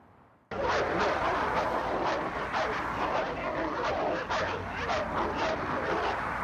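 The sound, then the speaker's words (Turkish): Several street dogs in Adana, Turkey, bark in rapid, overlapping bursts over a loud, continuous background roar as they chase a child on a bicycle, the barking steady throughout after a sudden start. “Şuradaki köpekler tarafından kovalandı.”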